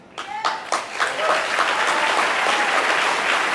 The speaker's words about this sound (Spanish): Y bueno, el centro de todo esto es, pedir un aplauso para MJ Rodríguez, que ganó el año pasado el premio, la, primera mujer trans que ganaba un premio